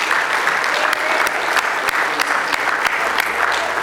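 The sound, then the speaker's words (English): A crowd breaks into sustained hand-clapping applause as a clap of praise to the Lord, a dense steady patter of many claps with sharper individual claps popping out, holding at an even, fairly loud level throughout. “Oh, give the Lord a good hand clap of praise.”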